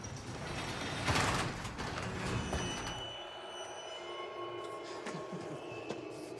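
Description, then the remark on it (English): A garage door rumbles and rattles as it rolls open, loud for a few seconds, then settles into a steadier mechanical hum with faint metallic squeaks and whines. “Man, you hotboxed the entire garage. I swear you have smoked us all. Stupid. Go open the door.”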